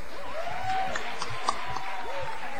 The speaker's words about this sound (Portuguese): Uma salva de uh. palmas.